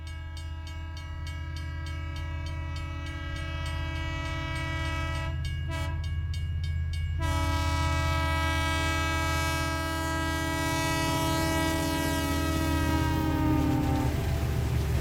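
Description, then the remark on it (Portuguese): A train horn sound effect blares steadily in long sustained tones over the low, continuous rumble of a train rolling along the tracks, loud throughout with no one speaking. “então, o momento do trem, para quem não sabe, é aquele momento em que os jaguaras dizem o que estão ouvindo, assistindo, qualquer coisa aí pra, de recomendação de coisas boas para os ouvintes.”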